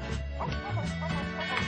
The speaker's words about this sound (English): What you just heard is an early theme to Blues Clues